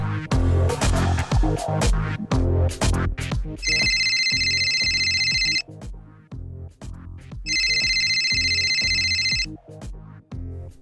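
A telephone rings in two long electronic bursts separated by a pause, loud, layered over a busy rhythmic music bed with no talking.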